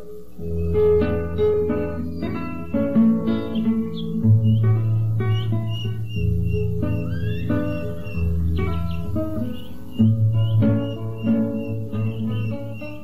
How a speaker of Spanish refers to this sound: cogieron las vacas y el canto de algunos pajaritos comenzaron a oírse.